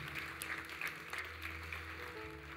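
An audience at a church service applauds steadily for a few seconds, a dense, even patter of many hands clapping at constant loudness over a low sustained hum. The applause is for the people watching the service online.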